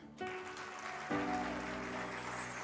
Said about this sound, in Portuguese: Líder de célula, você pode aplaudir?